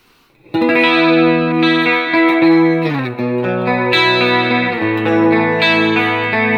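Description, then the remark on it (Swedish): Electric guitar through a pedal's factory preset number one, a shimmering chorus effect, plays sustained chords, ringing and full, shifting to a new chord around the midpoint. No one speaks over the playing. “Ett snyggt korus.”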